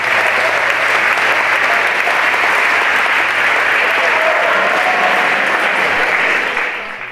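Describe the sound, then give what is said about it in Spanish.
Loud, sustained standing ovation from a large crowd, a dense continuous roar of clapping that holds steady for several seconds before easing slightly at the end. “Aplausos de pie para Maruja y Nestrosa.”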